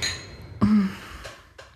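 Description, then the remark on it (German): Glasses clink together in a toast with one bright, ringing knock that fades quickly, followed by a couple of softer taps. Nobody speaks. “Cheers.”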